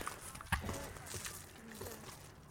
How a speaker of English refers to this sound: so this is the gentle sound of litter pickers crunching across.